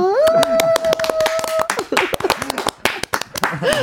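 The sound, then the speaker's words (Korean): A steady run of sharp hand claps from a radio host and a guest accompanying a sung happy birthday greeting, quick and fairly even in rhythm, with a voice singing a sustained note at the start and talking mixed in underneath. “네, 박수는 저 혼자만이 친 게 아니라 예 멋진 분이 쳐주시고 계시다는 거 축하드릴게요.”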